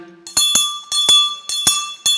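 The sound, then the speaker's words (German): A freely hanging bell, rung by pulling its rope, rings loudly with quick, uneven strikes, about six clangs in two seconds, each leaving a bright metallic tone hanging between hits. Clear, with no talking. “Und was passiert ist, wenn wir jetzt an dem Seil ziehen, was anfängt, ist, dass die Glocke hier”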